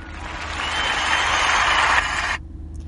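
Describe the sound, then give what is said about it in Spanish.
A steady burst of applause, dense clapping that swells slightly and holds for a couple of seconds before cutting off abruptly, leaving only a low hum underneath. “Este aplauso es para ti.”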